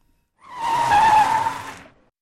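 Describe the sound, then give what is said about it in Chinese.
A car brakes hard to a sudden stop, its tires letting out a loud, steady, high-pitched screech for about a second and a half before cutting off. No voices. “汽车突然停下，我的身体往前一倾，撞到了车头上。”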